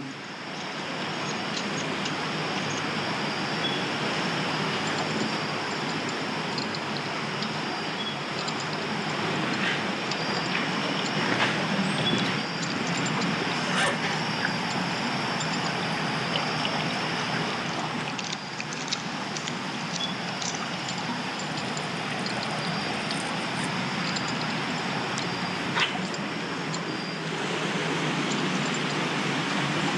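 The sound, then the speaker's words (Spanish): A mill running: a steady, unbroken mechanical roar and rumble that holds at an even loudness throughout, with a faint high whine on top and no voices. “Estoy escuchando como el ruido de un molino.”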